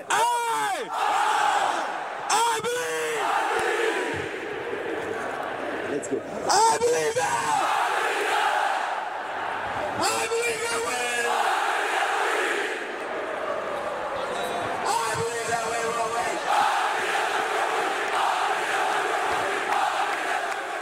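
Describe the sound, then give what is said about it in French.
A large crowd of Nantes football supporters chants the name of player Alejandro Bedoya in loud, repeated swells, many voices rising and falling together in a rhythmic, sustained roar for the whole stretch. “Eh oui, les supporters nantais l'auront reconnu, c'est Alejandro Bedoya.”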